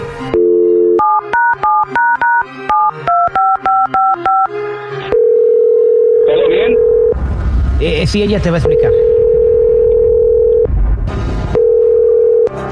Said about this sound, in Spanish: vamos a volverle a marcar a ella eh, para, para este que nos diga lo que, lo que te quiere decir, ¿ok?